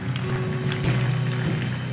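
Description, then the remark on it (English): A crowd in an auditorium claps steadily and loudly throughout as a clap offering of praise to God, a dense wash of applause with a sustained low musical tone underneath. “Come on, give a loud clap offering of praise to our Lord God.”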